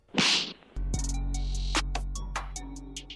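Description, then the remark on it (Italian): A loud cartoonish slap sound effect: a quick swishing whoosh, then a sharp crack followed by a low ringing hum with a few more snapping hits. No voices. “dai, siamo, abbiamo scavallato l'oretta di registrazione, è il momento dello schiaffo della settimana.”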